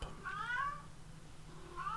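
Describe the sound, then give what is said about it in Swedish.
A female cat in heat lets out a long, drawn-out yowling meow, then starts another wavering cry a moment later, over a steady low background hum. “Så att eh, katten håller med om vår hyllningskör till.”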